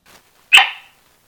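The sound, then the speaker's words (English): A single sharp, loud bark from Abby, a cattle dog in Center, Missouri, USA, rings out, trailing off quickly into silence after a faint rustle at the start. “Abby, my cattle dog and non smoking co host. Say hi, Abby.”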